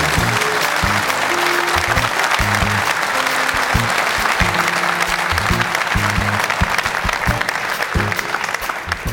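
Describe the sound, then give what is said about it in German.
Loud, sustained applause from an audience welcoming TV presenter Jana Wosnitzer, a dense steady patter of clapping lasting the whole stretch, with a low musical tone faintly underneath. “Und jetzt, Stefan, musst du tapfer sein, denn der Applaus für sie ist immer noch lauter.”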